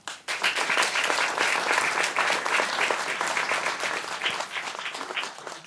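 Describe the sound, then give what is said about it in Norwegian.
A steady burst of audience applause welcoming a professor from the Department of Private Law at the University of Oslo, many hands clapping densely and evenly from start to finish, fairly loud, with no talking over it. “Ta godt imot professor ved Institutt for privatrett ved Universitetet i Oslo”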